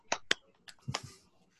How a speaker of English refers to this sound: The smattering of Zoom applause.